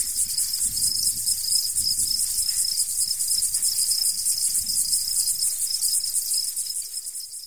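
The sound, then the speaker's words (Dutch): A loud, continuous buzz of a tropical cicada, made by vibrating plates on its body, fills the whole recording: a dense shrill drone with a fast pulsing texture, steady, fading slightly at the very end. No voices are present. “Dat is inderdaad gigantisch luid. Gelukkig geen cicade in de Provence, denk ik dan, en ook niet in mijn tuin.”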